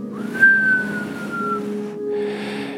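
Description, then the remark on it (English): A voice imitates the thin nasal whistle of breathing through a clogged nostril while trying to sleep, a single high tone that rises then slowly falls over about a second, followed by a breathy exhale, fairly loud. “And then you're like, one of your nostrils is kind of clogged. And it makes that, that whistling, that like whistling noise.”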